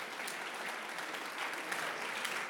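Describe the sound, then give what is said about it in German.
An audience applauds Jesus steadily, a dense, even wash of many hands clapping with no pauses and no voices breaking through, holding at a moderate level throughout. “Ein Applaus für Jesus.”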